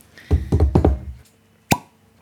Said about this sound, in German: Das wird nicht klappen. Von daher erwarten wir gespannt das Ploppgeräusch.